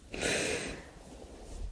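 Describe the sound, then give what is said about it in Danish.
A single deep, audible breath drawn in sharply through the nose and mouth, breathy, lasting about half a second before fading into quiet. “Jamen, så må du faktisk bare gerne lige tage en dyb vejrtrækning.”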